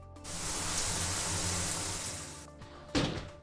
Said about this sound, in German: Also, das waren jetzt sieben Minuten ungefähr mit einem Sparduschkopf. Da muss ich jetzt nachschauen, wie viel Liter das jetzt wohl waren. Also bei dem Sparduschkopf Kopf sind das 6 bis 7 Liter pro Minute.